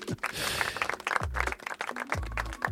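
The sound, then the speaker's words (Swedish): A burst of applause, many hands clapping in a dense, steady patter that carries on for a few seconds at moderate loudness, with a few low voiced murmurs underneath. “Ja, visst är det värt en applåd.”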